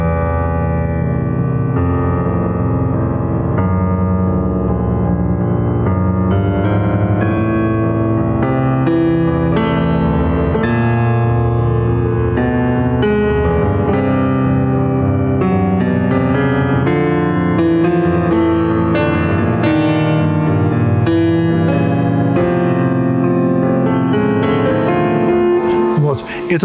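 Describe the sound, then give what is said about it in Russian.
Loud, continuous solo piano music, the second movement of Prokofiev's Piano Sonata No. 4 in its 1917 version, built on heavy chords deep in the low register, with slow, weighty harmonies sustained and layered for nearly half a minute. “тоже как бы такой немножко э, апофеоз нижнего регистра.”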